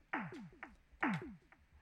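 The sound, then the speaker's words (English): Two drum hits from a small two-octave electronic keyboard with no drum pads, with a falling, zappy pitch, each followed by a couple of quieter echo repeats that fade away; the keyboard's built-in echo cannot be turned off. The sound is clear, with no talking. “You'll notice that there's actually an echo on it, so it's like,”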